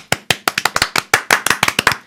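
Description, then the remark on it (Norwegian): A quick, uneven burst of hand clapping, about a dozen sharp, loud claps in two seconds with no one speaking, like a short round of applause from a few people. “Du har vært veldig flink, til å fortjene en applaus.”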